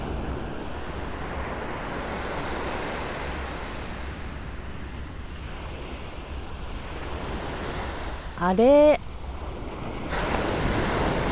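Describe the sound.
Steady ocean surf rushes and washes continuously against the shore, with some wind buffeting the microphone, and a person briefly speaks a single short word near the end.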